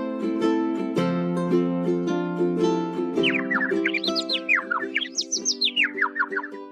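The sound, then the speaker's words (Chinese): Quick, bright chirps from small birds outside a window, rising and falling in a rapid rhythmic string, over a steady humming musical tone that plays throughout. “妮可觉得窗外啾啾叫的小鸟。”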